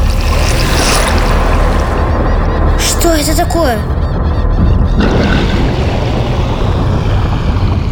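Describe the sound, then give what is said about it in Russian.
A huge iron submarine surfacing from the sea by a beach: loud, steady rushing and churning water fills the whole stretch, broken midway by a short warbling horn-like blast, while a voice asks a brief question. “Прямо из воды начала расти огромная железная гора.”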